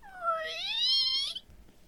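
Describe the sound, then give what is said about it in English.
A single drawn-out squeal of rusty hinges, rising in pitch and lasting just over a second, heard alone with no talking, among trees in a wood. “As they stared curiously at the swinging totem, they were surprised by the squealing sound of rusty hinges.”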